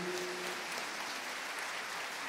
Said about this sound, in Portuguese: Obrigado ao nosso coral. Você estava com saudade do nosso coral? Dá uma salva de palmas para eles.